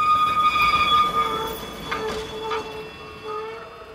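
A train rolls along the tracks with steady rumbling and high, sustained metallic squealing from the wheels, moderately loud, easing slightly in intensity toward the end. No one speaks.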